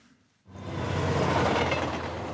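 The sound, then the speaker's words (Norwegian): After a brief quiet moment, the loud, steady rumble of a passenger train running on rails on the Meråker Line in Norway in the late morning sets in, with a low rhythmic clatter underneath and no voices. “Det er ikke akkurat kamp om sitteplassene på Meråkerbanen denne formiddagen.”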